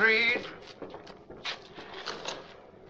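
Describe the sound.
A door is opened with a short, high creak of the hinges at the start, followed by soft shuffling and rustling movement that trails off over a few seconds.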